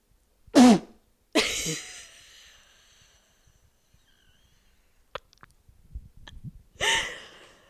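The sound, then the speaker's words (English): A loud sneeze: a sharp vocal intake followed by an explosive burst that trails off, then quiet with small rustles and a final breathy exhale or sniff. “oh I'm gonna sneeze.”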